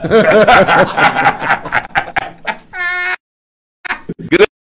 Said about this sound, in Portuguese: Gatinho.